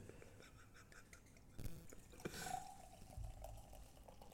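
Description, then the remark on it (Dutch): Beer being poured into a glass: a gurgling splash that starts abruptly, then a steady, fizzy trickle with a faint tone as the glass fills. Fairly quiet, no talking. “Nee, we moeten gewoon live inschenkgeluiden erin.”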